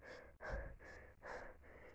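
Heavy, agitated panting, a quick run of harsh breaths in and out with only tiny pauses between them, no talking; a person breathing hard in the middle of a tunnel.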